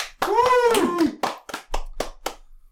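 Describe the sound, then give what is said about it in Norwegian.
A brief vocal cheer opens, then a short burst of applause trails off into a handful of sharp, separate claps spaced at a loose, uneven rhythm. “Kort applaus.”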